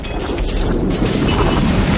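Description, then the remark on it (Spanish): A tank shell blasts into the corner of a house, a loud, dense roar of crashing and crumbling debris that rumbles on without a break for the full two seconds, with no voices. “El disparo del tanque destroza la esquina de una casa.”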